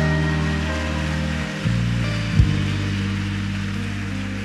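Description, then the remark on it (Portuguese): A church audience applauds Jesus during a sermon in a dense, steady wash of clapping that holds for several seconds, with sustained low keyboard or organ chords underneath and a brief thump partway through. “Alguém pode aplaudir a Jesus aqui nesse lugar?”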